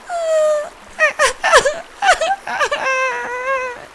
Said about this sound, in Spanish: Sobre una roca, en mitad del agua, un oso de peluche lloraba amargamente.